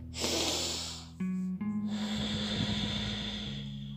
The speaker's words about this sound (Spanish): La respiración tiene que ser inhalar por la nariz, exhalar por la nariz. La boca tapadita, por favor.